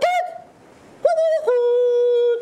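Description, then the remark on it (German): A human voice imitates a cuckoo's mating call: a short hooting note, a pause, then a loud two-note 'coo-coo' with a long held second tone, alone. “Vielleicht, wenn sie den Paarungsruf des Kuckucks imitiert.”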